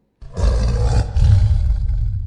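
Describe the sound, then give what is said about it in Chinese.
A tiger springing out of a forest lets out a loud, sustained roar lasting about two seconds, deep and rumbling with a raspy, growling texture and a brief dip midway before continuing. “正当爬得疲惫不堪时，树林中突然扑出一只老虎，对他张牙舞爪。”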